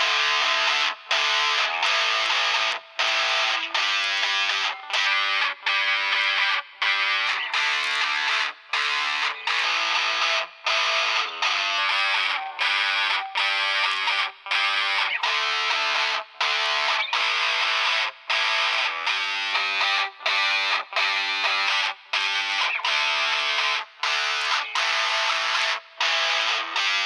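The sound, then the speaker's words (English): Heavily distorted electric guitar chugs through chords and riffs with brief, regular stops, played steady and loud with no one speaking, in an amp and cabinet tone demo of impulse responses (IRs) loaded and combined in the free Fairmageddon software. “With Fairmageddon, you'll be able to load, combine, adjust, merge, and manipulate your IRs to achieve this goal with ease.”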